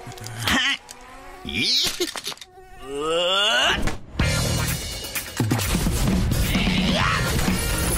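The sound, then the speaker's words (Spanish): A high, whining buzz of attacking mosquitoes that rises and dips in pitch, fairly loud, mixed in with other busy sound effects and groaning noises, in an advert for Raid insecticide. “Cuando los mosquitos atacan, combatilos con lo que realmente funciona.”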